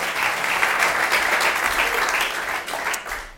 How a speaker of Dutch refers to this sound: Geef hem een applaus, mensen. Dat is wel leuk.